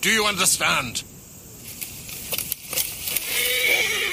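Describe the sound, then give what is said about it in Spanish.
A horse whinnies with a wavering, high-pitched neigh, followed by scattered hoof clops and shuffling against a steady background hiss. A voice may be faintly present in the mix. “Va dirigiendo, entonces aquí vamos eh, siguiendo los ruidos del caballo.”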